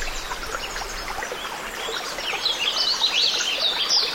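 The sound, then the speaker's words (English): A mountain stream flows steadily with a bright, babbling rush, with light bird chirps flickering over the water and the flow swelling a little louder toward the end. “this forest of noise also made my arrival to the banks of this mountain stream that much sweeter.”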